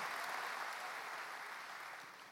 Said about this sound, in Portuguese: Dê um aplauso ao Senhor Jesus nessa manhã.